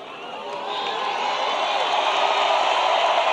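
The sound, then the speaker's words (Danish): A large audience roars with cheering and applause after a speaker drinks water from a glass with one hand, a dense, sustained wash of noise that builds slightly and stays loud throughout, with no distinct voices standing out. “Og øh, han drak endda også vand af et glas med en hånd, og publikum gik fuldstændig berserk.”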